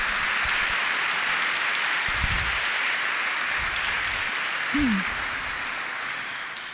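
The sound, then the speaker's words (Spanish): A crowd applauds steadily for several seconds to honor the King of Kings, the Lord of Lords, a dense, even wash of clapping that holds throughout, with a brief vocal cry or two rising over it. “Yo ser ustedes les daría un aplauso al Rey de Reyes, al Señor de Señores.”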